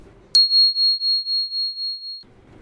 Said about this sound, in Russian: Ну что, ребята, вот телефон зазвенел вдруг. Сейчас послушаем его.